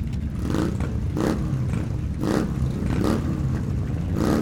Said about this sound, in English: all based on sampling the engine sound of the hog. And I don't mean the pig, I mean the hog, as in.